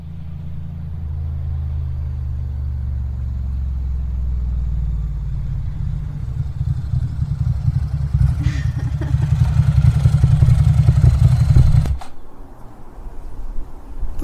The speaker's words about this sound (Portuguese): Sei que quis vir de moto, doidinho. Ah, cara, sexta-feira para começar bem tem que ser de moto.